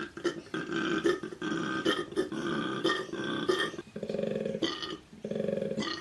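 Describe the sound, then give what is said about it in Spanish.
A koala's bellowing call: deep, rasping, snoring-like inhales alternating with lower resonant grunting exhalations, repeated in a steady rhythm, loud. “Si te sorprendió que este sonido provenga de un koala, pues te diré que no fuiste el único, a mí también me sorprendió bastante.”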